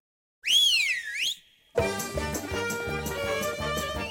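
A bright, swooping radio whistle signal, played each Friday before Shabbat candle-lighting times, rises and falls for about a second, then breaks off into a lively, full instrumental tune with steady rhythm that plays on without any voices.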